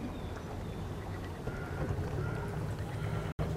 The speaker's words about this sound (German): ich freue mich heute total hier zu sein auf diesem coolen Boot auf der Donau.